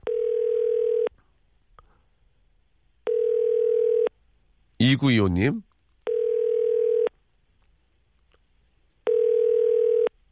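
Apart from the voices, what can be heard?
telephone ringback tone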